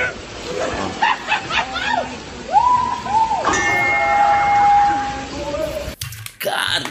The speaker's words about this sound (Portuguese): Mano, imagina a força que tu tem que dar com a testa numa parada de ferro dessa para fazer esse barulho alto desse jeito, cara. Mano, olha, eu vou ouvir de novo aqui, que foi muito bacana mesmo.